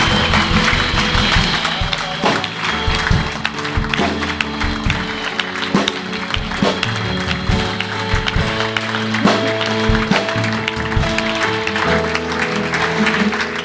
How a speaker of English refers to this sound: give them a really big clap and cheer as they come up this morning. great. Let's give them a great big cheer.